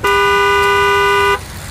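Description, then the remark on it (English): A single loud, sustained car horn blast as heard by someone on a bike, steady, lasting over a second before cutting off abruptly, leaving faint road noise behind. “Now, this is what that same horn sounds like when you're on a bike.”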